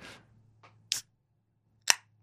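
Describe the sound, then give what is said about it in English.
A beer can is cracked open: a faint tick, then two sharp, crisp snaps about a second apart, each with a brief fizzy burst. “I just realized I haven't cracked my own.”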